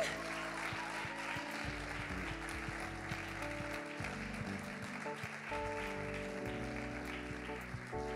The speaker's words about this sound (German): Ja, lasst uns Ihnen nochmal einen Applaus geben.